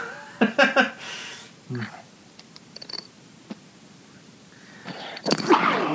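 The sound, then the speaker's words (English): A sharp sneeze bursts out near the start, followed by quieter rustling, then a second loud, breathy sneeze-like burst near the end. “Bless you.”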